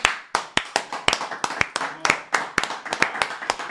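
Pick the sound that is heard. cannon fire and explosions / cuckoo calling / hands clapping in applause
hands clapping in applause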